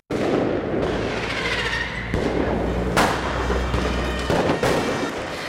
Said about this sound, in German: So hörte sich das letztes Jahr zu Silvester in Berlin an.